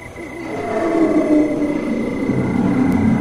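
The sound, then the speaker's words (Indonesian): A deep, sustained roar from a giant snake as big as a coconut tree swells in and holds steady for a few seconds, a loud, growling rumble with a faint high whine running underneath. “Oh, ada ular besarnya sepohon kelapa.”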